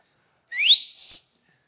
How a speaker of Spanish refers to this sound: Pues, ¿cómo le chifla el micro, mijo?